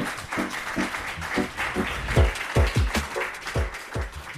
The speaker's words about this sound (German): Und ich bitte nochmal um einen tosenden Applaus für unsere tollen Gäste von heute